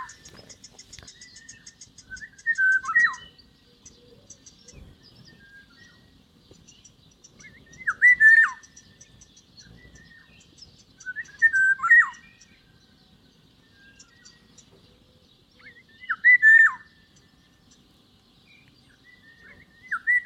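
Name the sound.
eurasian golden oriole song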